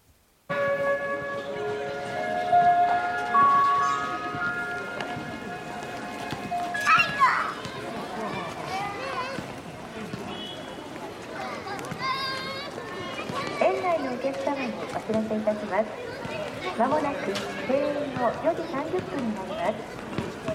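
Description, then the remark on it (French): A gentle park closing-time melody in Japan, of sustained, bell-like tones, plays for the first several seconds while children shout and chatter, their lively voices carrying on alone after the tune fades. “du son que vous allez entendre qui correspond au son de la fermeture du parc, qui est donc une assez douce mélodie”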